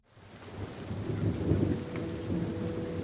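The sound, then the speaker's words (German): Steady cold rain pours down in a continuous, dense hiss on a Monday morning shortly before 8 at a schoolyard, with a low rumble of thunder rolling underneath. It fades in quickly and stays fairly loud throughout, with no voices. “Es regnet und ist kalt.”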